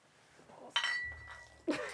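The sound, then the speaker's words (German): Beer glasses clink together in a toast, with a sharp knock followed by a thin ringing tone that lingers, then a second clink about a second later, moderately loud. “Aber nicht, weil es aus Versehen äh, rausgeschwappt ist, sondern weil sie Bier zum Anstoßen so scheps gehalten hat.”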